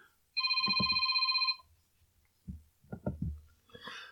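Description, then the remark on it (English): A telephone rings with an incoming call in one sustained electronic trill lasting about a second, fairly loud, followed by scattered low thumps and brief murmured voice sounds. “Sorry about the ringing phone.”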